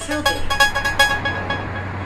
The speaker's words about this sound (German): Sie liegt an einer Strasse. An einer Strasse, wo viele Autos fahren, wo viel mit dem Velo durchhetzen und ein Bus nach dem anderen vorbeibrummt.